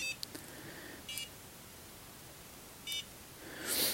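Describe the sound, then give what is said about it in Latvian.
A few short electronic beeps with a harmonic, buzzy tone from a facial massage device held on the face, sounding over quiet background hiss, followed by a brief soft rustle at the end. No one speaks. “Un, un tad es viņu tā kā tur uz sejas un gaidu, kamēr tur ir kaut kāds signāls.”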